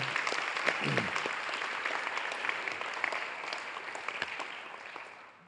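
An audience at a church service applauds steadily for several seconds, a dense wash of many hands clapping at once, sustained without letting up.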